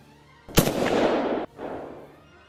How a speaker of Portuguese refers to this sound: tu vê que estão usando armas de projéteis no embate lá.